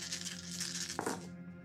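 A handful of dice, rolled for a stealth check in a tabletop game, clatters and rattles across a hard surface for just over a second, fairly quiet, with a brief murmur of a voice near the end.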